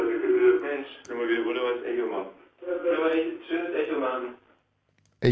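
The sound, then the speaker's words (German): A voice plays back as a delayed echo through a thin, tinny internet stream, in two long overlapping bursts separated by a short pause, then silence and a sharp click at the end. “Der Mike hört per Internet und das heißt, wir können wieder... Mensch. Können wir wieder wunderbares Echo machen.”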